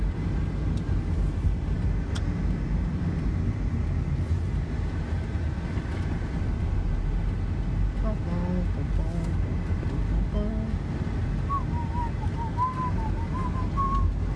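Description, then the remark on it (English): Steady, loud road and engine rumble from inside a moving car in traffic as the driver changes lanes, continuous throughout, with some faint higher tonal chirps and murmuring appearing toward the end. “I gotta get over real quick.”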